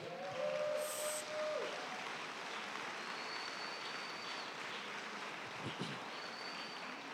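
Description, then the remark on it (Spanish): An audience applauds for God in a steady, dense wash of clapping that holds at an even level for the whole stretch, with a few faint tonal squeals early on and no speech. “Dar un aplauso a Dios, por favor.”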